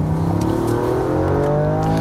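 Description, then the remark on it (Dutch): A Toyota Yaris engine revs up steadily as the car accelerates, its rising, throaty hum loud with no one speaking over it. “Ja, de Toyota Yaris.”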